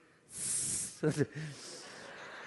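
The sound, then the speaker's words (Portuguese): A person imitates a snake, making a sharp, sustained hiss lasting about half a second, followed right away by a few short voiced syllables, fairly loud. “Fingiu que voltou a ser serpente.”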